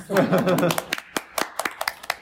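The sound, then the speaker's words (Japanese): Scattered applause from a small group: sharp, uneven claps that thin out into a sparse, irregular patter, with a voice overlapping the opening moments. “じゃあ、拍手お願いします。”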